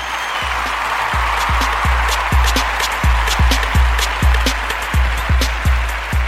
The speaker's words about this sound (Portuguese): Salve palmas pra todos vocês, amigos.